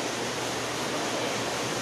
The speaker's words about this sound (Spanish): aquí ya se vino la lluvia, cañón, súper fuerte, no sé si la escuchan. Ahora sí que, bienvenida a la lluvia. ya empezó a rapear el cielo.